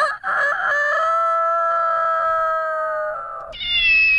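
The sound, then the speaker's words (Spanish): Someone imitates a rooster crowing, one long, loud, drawn-out cock-a-doodle-doo held for about three seconds, breaking into a higher squeaky note at the end. “A mí sí me molesta que mis vecinos ahí tengan gallos, ¿eh?”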